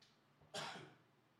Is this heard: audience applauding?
no